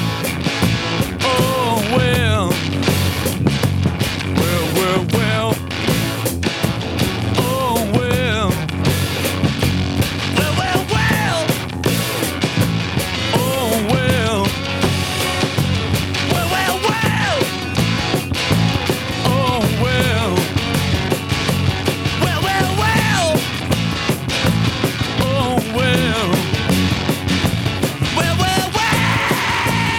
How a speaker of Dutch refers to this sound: En daar neemt hij dan een extra lead eh, gitaar eh, bij op. En dat doet hij weer op 18 oktober. Luister goed in je linkeroor.